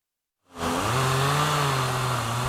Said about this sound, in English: In some parts of Perry, the sound of chainsaws is almost enough to drown out the usual singing of cicadas and tree frogs. Families, neighbors, and out of towners are coming together to clear roadways and a path to recovery.